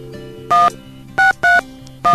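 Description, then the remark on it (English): Four crisp touch-tone beeps of a phone number being dialed, each a short two-pitch tone in an uneven rhythm, loud over a faint low hum. “She, he's he's sending me like uh, phone numbers.”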